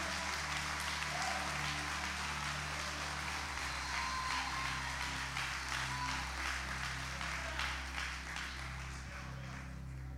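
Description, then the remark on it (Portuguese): A crowd applauds steadily to celebrate Jesus during worship, a dense, sustained wash of many hands clapping at once, with a low hum running underneath the whole time and no one speaking. “Eu vou te dar um minuto para você levantar a sua mão, aplaudir a Ele, glorificar a Ele, celebrar a Ele, bendizer a Ele.”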